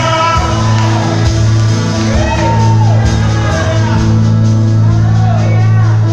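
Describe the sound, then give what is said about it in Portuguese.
A large crowd shouts and whoops joyfully, a dense, loud, continuous wave of overlapping cheering voices with rising whoops cutting through, sustained throughout without a break. “Isso, olha o barulho da alegria.”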